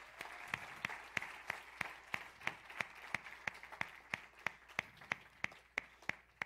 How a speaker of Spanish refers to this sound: A Él sea la gloria y la honra. Démosle un fuerte aplauso a Jesús por eso.